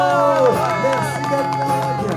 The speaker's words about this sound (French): Je vous remercie, applaudissez-vous, lâchez-vous, s'il vous plaît. Applaudissez-vous, s'il vous plaît, c'est vous. Applaudissez-vous. Merci Merci